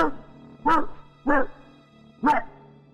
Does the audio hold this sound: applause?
no